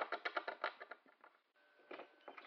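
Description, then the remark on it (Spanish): Rapid, irregular scratching and scrabbling bursts from fairly large rats and mice inside the wooden wall paneling of a house, dry, with a brief lull midway before the scraping resumes in short clustered strokes. “El dueño de la casa nos dijo que probablemente escucharíamos ratas y ratones en el revestimiento de madera. Ciertamente puedo escucharlas ahora. Ratas bastante grandes, a juzgar por el sonido.”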